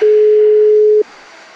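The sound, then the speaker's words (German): A single loud, steady electronic ringback tone holds for about a second, then cuts off, leaving a faint hiss. It's the tone of a call to a mobile phone ringing while waiting for someone to answer. “Komm, als ob du wieder so beschäftigt bist, geh einfach an dein Handy ran.”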